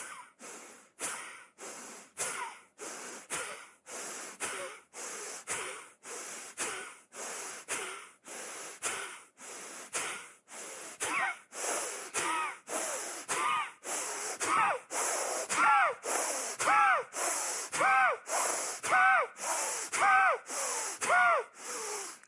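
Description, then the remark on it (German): Forceful, rapid power breathing during a yoga exercise, done in shoulder stand with scissoring leg movements: a steady train of about thirty sharp, breathy huffs in even rhythm, growing louder and more voiced toward the end, with no talking. “Jetzt Power Breath mit Scherenbewegung der Beine.”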